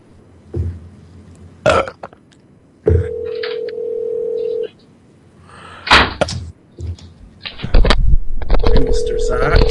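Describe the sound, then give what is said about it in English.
A steady telephone dial tone hums for a couple of seconds as a phone call is being made, stops, then returns near the end, broken up by loud handling clatter and short bursts of noise. “I I have a I have a legitimate phone call to make.”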